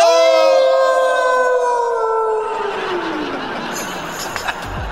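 A single loud wolf howl, long and mournful, slowly sliding downward in pitch before fading into a noisy, echoing wash with faint background clatter.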